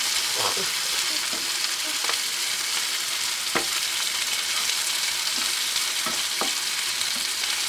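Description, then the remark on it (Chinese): Pork belly sizzles in a frying pan, a steady, dense hiss with scattered sharp pops and crackles throughout. No one speaks. “啊，如果大家想要知道就是煎起来的画面呢，大概长怎样”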